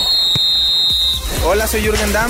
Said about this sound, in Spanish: El balón está en la cancha. Suena el pitazo del árbitro.